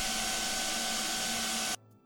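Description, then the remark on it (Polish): A vacuum cleaner runs in the background of a voice recording made with noise removal switched off. It drones loudly and steadily with a whining hum, then cuts off abruptly near the end, leaving near silence. “Teraz słyszycie nagranie mojego głosu z wyłączonym RTX audio, gdzie w tle słychać pracujący odkurzacz.”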